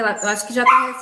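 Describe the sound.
A small dog yaps and whines in short, high-pitched bursts at home, mixed in with a person talking over it.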